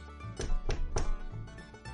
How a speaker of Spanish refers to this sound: Se lo comió para suavizarse la voz y volvió a la casita, llamando nuevamente a la puerta.